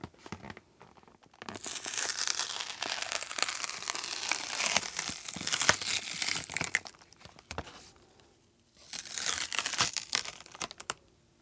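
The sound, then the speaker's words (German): Loud crinkling of plastic packaging being torn open on its other side and handled, with sharp crackles and rustles over several seconds, a brief pause, then another burst of crinkling as the contents are pulled out. “Die andere Seite öffnen, einfach ganz normal. Sehr gerne. Und dann dieses, den Inhalt da rausholen.”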